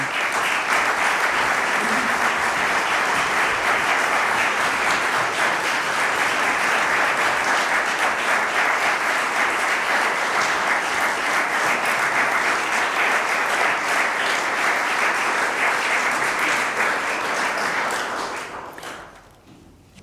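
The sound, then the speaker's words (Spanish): A large audience in the Salón de Honor applauds steadily to welcome the day's performing artists before a recital, a dense, even wash of many hands clapping that holds loud for about eighteen seconds before quickly dying away. No one speaks over it. “Recibimos con un aplauso aquí en el Salón de Honor a nuestros artistas de hoy”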